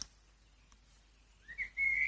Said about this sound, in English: Listening to the birds.